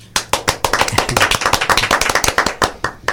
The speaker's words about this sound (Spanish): Recibimos con un fuerte aplauso a Max Puy.